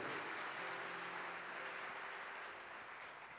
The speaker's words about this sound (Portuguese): Ele está vendo você aqui sentado na Sara Nossa Terra, aqui em Ribeirão Preto. E Ele está assim muito orgulhoso de você, que você está no lugar certo. Dá uma salva de palmas a você. Essa é para você.